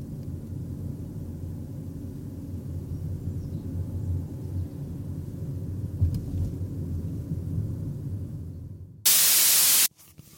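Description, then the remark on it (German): A steady, low engine rumble from inside a moving car with the driver alone drones on with no talking, then a short, loud burst of harsh static cuts in near the end. “genieße ich es, wenn ich dann mal, so wie jetzt, im Auto sitze, ganz alleine und niemand mit mir spricht und niemand mir hinterherläuft und niemand irgendwas von mir will und ich einfach nur hier im Auto bin, nur ich.”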